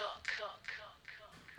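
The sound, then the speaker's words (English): Reverse reverb sweeps on a female singer's vocals, four breathy, washed-out swells repeating in a steady rhythm, each rising into a smeared vocal burst, then stuck hits with delay. Fairly quiet, with no clear words. “it's like some, it's like reverse reverb, sweepy things coming up, and then stuck hits with the delay, right?”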